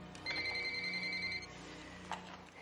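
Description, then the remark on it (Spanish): A cordless telephone rings with one steady, high electronic warble lasting about a second, followed by a short click as it is picked up, over a low background hum. “Coge un teléfono inalámbrico.”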